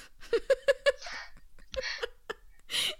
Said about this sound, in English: that was like a wet burp. oh my goodness.